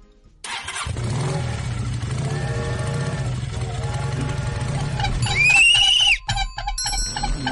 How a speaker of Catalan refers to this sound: Exacte, sí, un tren i una moto.